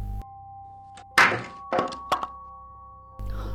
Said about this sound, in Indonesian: Buku-buku yang berada di meja belajarku terjatuh dan berantakan.